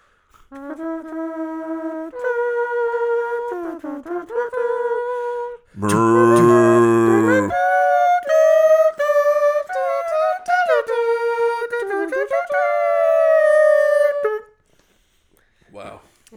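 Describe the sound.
A voice hums a drawn-out fanfare-like tune, broken by a loud, growling roar about a third of the way in, apparently a person imitating a lion's roar as a mock movie intro before the melodic humming resumes.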